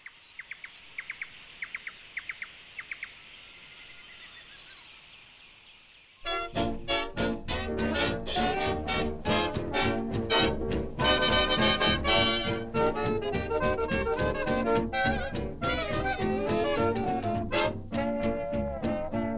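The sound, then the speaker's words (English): Forest ambience recorded by Bill deBuys in the forests of Laos: a quiet, soft, steady hum of insects and short bursts of high, rapidly repeated bird chirps, cut off after about six seconds by loud, full music. “Bill deBuys recorded these sounds in the forests of Laos.”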